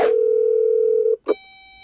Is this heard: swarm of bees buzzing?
no